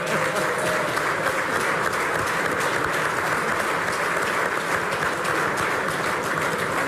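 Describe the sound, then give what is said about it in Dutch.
Sustained applause from a crowd as a man comes onto the stage with a microphone, a dense steady wash of clapping hands that stays loud and even for the whole stretch, with no voices standing out. “Applaus.”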